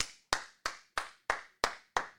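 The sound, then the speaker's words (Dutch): Seven crisp hand claps at an even, steady pace, each a sharp bright slap with a brief fading tail, like one person applauding on their own with no talking, applauding the return of Formula 1 racing. “Het is nu echt aangekomen. Applaus!”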